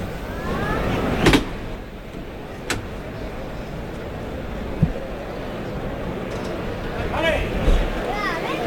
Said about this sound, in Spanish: a abrir la puerta de Toril